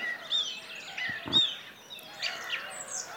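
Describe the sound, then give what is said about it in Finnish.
Black-headed gulls and a song thrush calling outdoors in calm weather: harsh, repeated gull cries mixed with clear, whistled thrush phrases, overlapping continuously at a moderate level with no talking. “Mutta kyllä se nyt melkein silleen menee, että nämä naurulokit ja laulurastas on parhaiten äänessä. Tällä hetkellä kyllä.”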